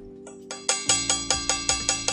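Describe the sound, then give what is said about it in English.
A bell rung rapidly and steadily, about ten bright metallic strikes in quick even succession, building in loudness over a low steady hum, with no voices. “All right, so ladies and gentlemen, you know I always give you the doggone seatbelt moment, let me ring and sound the bell.”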